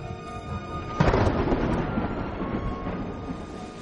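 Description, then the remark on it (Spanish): Heavy rain pours down at night on a residential street in a dense, steady roar, swelling suddenly after a moment and carrying a low, rumbling undertone like thunder. No voices. “Ahora llueve a cántaros y es de noche.”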